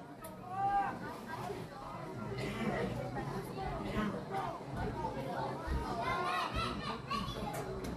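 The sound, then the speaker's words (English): A dense, growing crowd of chattering voices fills the stands at a football game, many overlapping conversations and excited high-pitched shouts blending into a steady, moderately loud hubbub without pause. “And the crowd just keeps getting bigger and bigger.”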